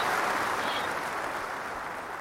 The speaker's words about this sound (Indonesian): kita berikan tepuk tangan ya buat tim MCB kuda hitam tahun ini